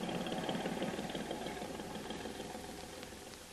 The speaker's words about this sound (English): There be big boat, master. Go out to sea.